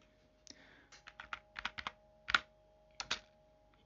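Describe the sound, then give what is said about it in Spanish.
Quick, irregular keyboard clicks tap out in short bursts as someone searches Google, a dozen or so keystrokes with brief pauses between clusters, over a faint steady background hum. “déjenme que lo googleo.”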